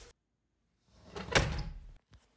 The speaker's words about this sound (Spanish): Se despertó sobresaltada al escuchar que su ventana se cerró de un golpe.